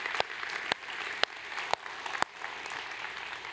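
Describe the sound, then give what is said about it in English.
A crowd applauds steadily throughout for the staff, a dense wash of many hands clapping at once, with a few sharper individual claps standing out above the sustained roar. “And would you guys give our staff just an awesome hand?”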